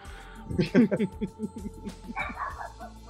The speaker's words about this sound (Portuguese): Eita, o cachorrinho latiu aí, não gostou?